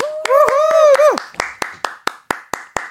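Steady, rhythmic clapping in sharp, evenly spaced beats, with a drawn-out whooping cheer wavering over the first second before the claps continue on their own.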